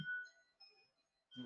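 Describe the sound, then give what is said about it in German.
An alarm clock rings with a quiet electronic melody of sustained, shifting beeping tones, fairly faint. A voice briefly cuts in at the start and again at the end. “Ähm, das ist der Wecker.”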